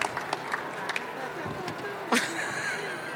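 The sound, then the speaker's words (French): An audience applauds a performer about to deliver two texts, in a steady, fairly soft wash of clapping, with a brief sharper burst and a high, whistle-like tone partway through. “Maintenant, j'aimerais qu'on fasse vraiment un tonnerre d'applaudissements pour”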